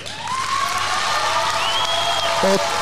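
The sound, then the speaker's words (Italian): Thunderous applause roars steadily for about three seconds, a dense wash of clapping with crowd cheers and a few rising whistles or whoops riding over it. “È un applauso molto fragoroso.”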